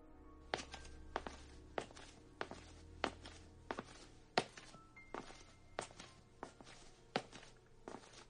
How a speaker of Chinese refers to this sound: 这时风停了，从走廊那一头传来了一种鞋踏在地板上的声音。